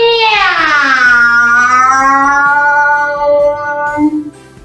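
A long, drawn-out meow that slides downward in pitch, loud, lasting several seconds before trailing off. It is most likely a human voice imitating a cat, voicing Señor Miau, a cat character in a children's story.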